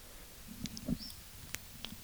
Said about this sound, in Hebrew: איזה שתיקה, שמעתי פה את הציפורים.